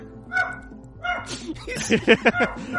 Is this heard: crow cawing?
no